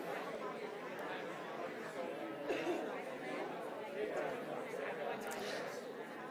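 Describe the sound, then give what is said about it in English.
An audience of people talking among themselves at once, each turning to the person next to them to say what they think the most common fears are. A steady overlapping murmur of many voices with no single speaker standing out, moderately loud and continuous throughout. “Turn to somebody next to you and tell them, what do you think some of the most common fears that some people have are?”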